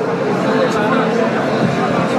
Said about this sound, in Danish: Der er jo, som jeg siger, en, måske nok en 400-500 danske fans herinde på poppen her